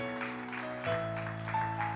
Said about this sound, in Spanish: Dan aplauso porque Él se lo merece. Él se lo merece.